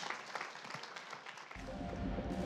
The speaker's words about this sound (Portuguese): Podemos nos levantar e dar um grande aplauso a Jesus. Ele veio para todos.